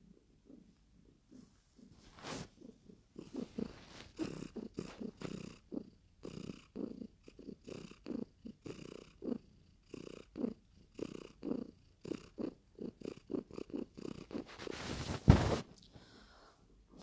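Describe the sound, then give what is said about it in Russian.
A cat purrs steadily on a bed for the whole stretch, a low rhythmic rumble pulsing with each breath, fairly quiet, with a brief rustle or bump near the end. “Бедненький ребеночек, вот сейчас вот воркут на кровати”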